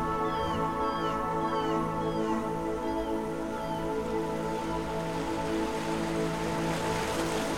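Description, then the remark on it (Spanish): Seagulls call repeatedly over a steady wash of ocean waves breaking on a beach in the morning sea breeze, their sharp, curving cries rising and falling above the continuous surf, with no voices present. “Las gaviotas continúan cantando.”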